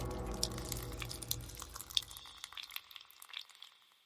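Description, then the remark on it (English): Liquid drips and patters irregularly and softly over a low rumbling wash that fades away partway through, leaving scattered drops in near silence. No one speaks. “To her absolute terror, hanging in the shower was her golden retriever, his blood dripping.”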